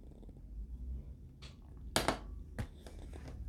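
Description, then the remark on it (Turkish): Someone takes a sip of water: a few short, sharp handling and swallowing sounds over a soft low rumble, with no talking. “Bir yudum su içeyim.”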